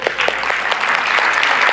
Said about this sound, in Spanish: El sábado la reunión con los jóvenes, un éxito. ¿Por qué no le damos un aplauso a esta gente?